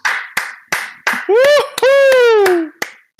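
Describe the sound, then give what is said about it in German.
A single person claps steadily, about ten sharp, evenly spaced hand claps, while a voice lets out a long, rising and falling whoop in the middle. “Einmal Applaus bitte. Applaus bitte.”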